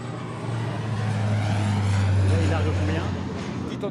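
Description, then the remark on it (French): A Dash water bomber aircraft drones overhead at the Sécurité civile air base in Nîmes, Gard, France, above a simulated fire on the tarmac surrounded by fire trucks; its deep engine hum is loud and steady, swelling slightly mid-way then easing off, with muffled voices faintly beneath. “un avion bombardier d'eau dash dans les airs, un feu simulé au sol sur le tarmac entouré de camions de pompiers.”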